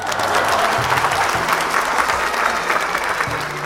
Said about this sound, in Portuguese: A multidão aplaude.